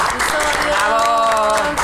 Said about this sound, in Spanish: Y ya estamos en otro episodio de Entre Ojeras y Sonrisas por Fisher Price. Un aplauso a nuestro